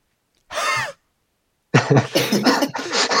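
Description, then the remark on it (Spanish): A person imitates how a T. rex, which had no vocal cords, would roar, without using their voice: a short breathy huff, a brief pause, then a longer, raspy, hissing run of choppy exhalations, fairly loud. “Ah, Entonces, técnicamente, si intentaran hacer un, no sé, rugido sonaría como...”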